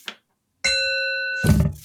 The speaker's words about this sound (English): Right. Shall I ring the bell? Yeah, ring the bell. Let's move on.